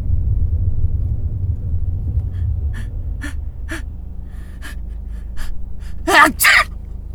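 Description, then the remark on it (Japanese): A person fakes a sneeze with their voice, a loud, sharp double burst near the end, preceded by quick breathy sounds over a steady low rumble. “偽くしゃみさ 無理だ怖い怖い失敗したらどうしようというこの失敗したら恥ずかしいがあるな偽セくしゃみあとうるせえし”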